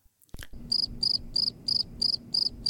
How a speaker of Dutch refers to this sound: Ja, ja, dat snap ik, dat krekelgeluidje.